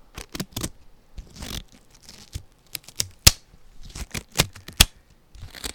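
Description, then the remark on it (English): Crisp rubbery crinkling and stretching with several sharp snaps as gloves are pulled onto hands before a scalp massage, in irregular bursts with short pauses and no talking. “Let me put some gloves on.”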